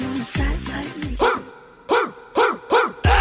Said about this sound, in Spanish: Bueno, pues por lo pronto, vamos a cantarle. Las ladraditas.